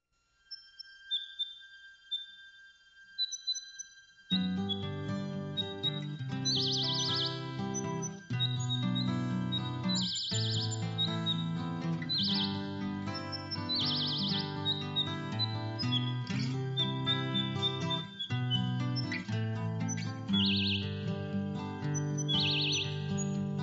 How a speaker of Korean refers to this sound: 역시 만든 새소리, 신디사이저로 만들어서 넣은 굉장히 흥미로운 새소리가 들어가 있습니다.